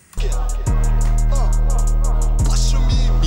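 A rap track's hip-hop beat plays loudly with booming bass hits, a steady pulse of crisp hi-hats ticking across the top, and punchy kick drums landing every second or so, with melodic sounds weaving through.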